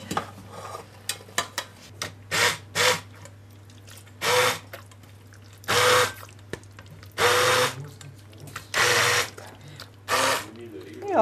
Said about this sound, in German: So, jetzt haben wir da unseren Pürierstab